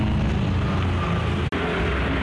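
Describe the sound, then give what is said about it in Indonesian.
Steady rumble of motorcycles passing by, a dense, continuous engine drone with no voices, briefly cutting out for an instant partway through. “Oke, okay, so kalau backsoundnya motor-motor lalu lalang.”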